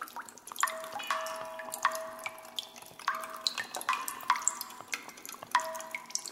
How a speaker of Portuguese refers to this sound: O som da gota caindo na cavidade do jarro produz uma reverberação única.